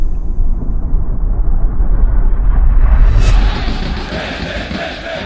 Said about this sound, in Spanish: Pero al interior del estadio, el infierno se erigió como suele ocurrir alrededor de una cancha de fútbol. Los cánticos de guerra de las dos hinchadas saturaron los oídos de los demás asistentes